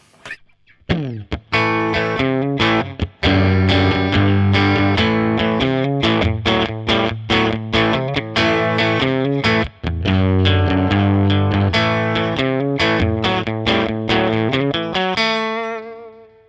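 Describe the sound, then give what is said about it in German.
Electric guitar played loud through a turned-up Fender tube amp, picked up by a ribbon microphone aimed directly at the speaker's dust cap, strumming rhythmic chords with a slightly gritty edge for about fifteen seconds, then a final chord rings out and fades. No voices. “Und ein Fender-Amp klingt normalerweise so.”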